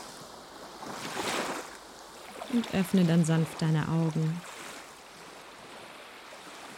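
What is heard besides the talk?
ocean waves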